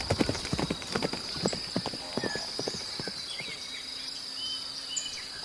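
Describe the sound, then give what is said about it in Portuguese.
Horse hooves clip-clop in a steady rhythm for the first few seconds, then fade out, leaving a constant high insect buzz and a few faint bird chirps in the background. “Nós vamos ter que ir a pé. A cavalo, criatura!”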